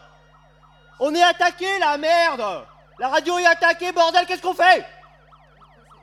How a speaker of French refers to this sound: C'est une ambulance, c'est une ambulance, c'est les voisins là.